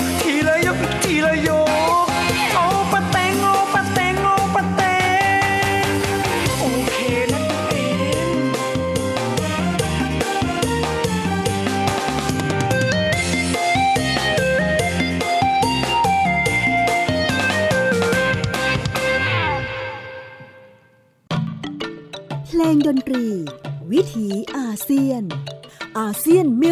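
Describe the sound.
An upbeat Thai luk thung song plays loud and full with steady rhythm, then fades out near the end, followed by someone talking.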